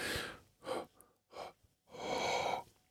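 Loud breaths blown straight into a microphone: four breathy bursts with short pauses between, the last one long and heavy, with no talking.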